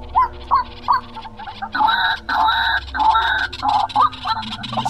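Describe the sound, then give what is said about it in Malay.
A man imitates a white-breasted waterhen behind the kitchen of his house around 5 in the afternoon to lure the birds, repeating loud, nasal, honking call notes in a steady, rhythmic series, with no talking. “Suami mami ni dia cuba buat suara burung ruak-ruak kat belakang dapur rumah dia Seolah-olah macam mengajuk burung ruak ni Supaya burung ruak-ruak ni datang ke rumah dia tu ha, Bunyinya lebih kurang macam ni lah”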